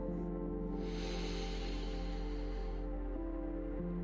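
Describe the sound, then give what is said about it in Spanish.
A single long, airy breath drawn in, lasting about two seconds, rises over a steady, soft musical drone that continues underneath. No one speaks. “Toma una respiración profunda.”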